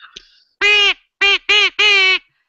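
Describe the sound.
A person imitates a duck with four loud, nasal quacks, the last one drawn out a little longer, each separated by brief pauses.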